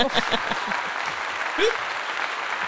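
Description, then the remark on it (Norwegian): A canned applause sound effect played from an applause button: a dense, steady wash of crowd clapping lasting a few seconds, with brief voices and a rising vocal exclamation over it. “Må jeg finne den applausknappen.”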